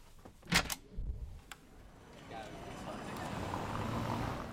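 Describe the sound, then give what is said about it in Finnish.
A couple of sharp clicks and knocks as someone steps out of a studio, then a broad wash of outdoor city noise swells up and holds steady, a continuous rumble and hiss of a busy street. “Kaupungin paletti vyöryy korviini aaltona ja säpsähdän hieman ulkomaailman meteliä.”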